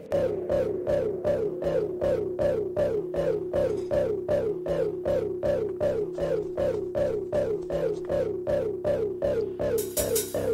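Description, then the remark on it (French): A short instrumental interlude: a steady, loud pattern of repeated bright synth-like notes pulsing at a quick even rhythm over a sustained low drone, with no voices. “Donc juste après cette pause musicale, on va rentrer plus en détail dans les actions d'Emmaüs 82, celle auxquelles tu participes.”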